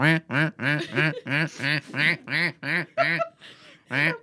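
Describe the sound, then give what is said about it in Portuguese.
A person imitates a duck, letting out about ten nasal quacks in a steady, rapid rhythm, fairly loud, with a brief pause before the last one. “É tipo, eu faço uh... bem de ah. pato.”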